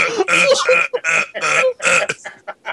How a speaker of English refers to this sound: he's belching with each thrust.